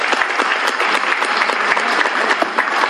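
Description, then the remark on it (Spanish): Steady audience applause to close a panel session fills the whole stretch, a dense, even patter of many hands clapping at a fairly loud level without pause, with no one speaking over it. “Muchas gracias por todo, un aplauso y cedo, bueno, un aplauso por favor para cerrar la mesa.”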